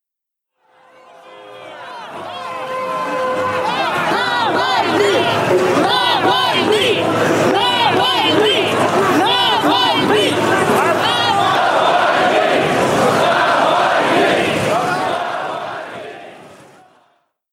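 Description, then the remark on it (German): A large crowd of Alexei Navalny supporters at Vnukovo airport chants loudly in unison, repeating a short rhythmic call over and over amid shouting and excited babble, sustained for the whole stretch. “Was ihr gerade gehört habt, waren Anhänger von Alexei Nawalny, die am Flughafen in Vnukovo standen.”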